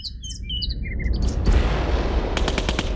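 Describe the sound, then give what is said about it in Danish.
Birds chirp over a low outdoor rumble in countryside with large fields, then a quick burst of gunfire from military exercises rattles off near the end, several sharp shots in rapid succession. “Og der godt nok er en del militærøvelser, som ikke gør det bedre selvfølgelig for dem, der er meget traumatiseret af, at der bliver udveksle skud og så videre.”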